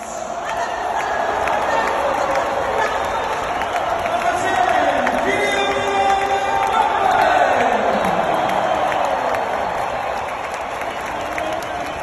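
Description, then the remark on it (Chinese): A World Cup stadium crowd roars and cheers after Kylian Mbappé's goal for France as the stadium loudspeaker announces Number Ten Kylian Mbappé, a dense, steady wall of voices and applause that swells louder midway with rising, wavering shouts before easing slightly toward the end. “咱们来一起听一下进球的音频”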